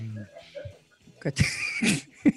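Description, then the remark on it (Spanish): A few harsh coughs come in quick succession, noisy bursts spaced irregularly after a brief stretch of quiet murmuring voices. “se escucha toda la tos.”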